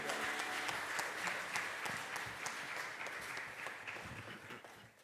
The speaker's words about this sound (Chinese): 掌声把一切的荣耀都归给我们的天父。